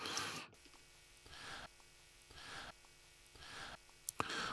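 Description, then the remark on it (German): A steady electromagnetic interference hum in a recording drones throughout, overlaid by regularly pulsing bursts of buzzy interference about once a second, with a couple of sharp clicks near the end and no voices. “Also es ist noch nicht mal nur Rauschen, das äh, ist wirklich ein Einstreuungsbrummen hier irgendwie elektromagnetisch.”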